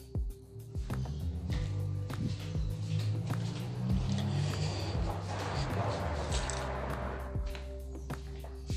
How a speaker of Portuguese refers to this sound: Enquanto passa um carro fazendo barulho aqui, tá virando uma bagunça esse áudio.